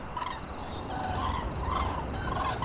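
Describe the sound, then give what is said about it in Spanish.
A flock of many cranes calls from far off in fog and sleet, overlapping trumpeting cries rising and falling unevenly above a steady rumble of background noise. “Era un sonido mítico, ancestral, y que además inmediatamente reconocí eran las grullas.”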